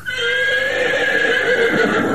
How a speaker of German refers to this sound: Nee, du, das war ein Hengst, du.